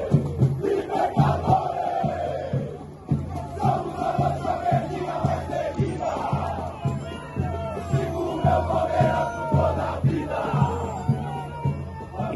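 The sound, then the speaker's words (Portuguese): A crowd of about 250 fans on a boat shouts, cheers and jumps continuously, voices blending into a loud, rhythmic roar with repeated chant-like surges and no quiet gaps. “Quando a gente viu aquelas 250 pessoas no barco, incentivando, gritando, pulando, cara, foi incrível.”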